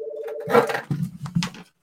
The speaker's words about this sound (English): Uh, oh, hang on just a sec. I'm gonna close my uh, my office door. Someone just walked in. I don't need to talk to them, but I forgot to close my door.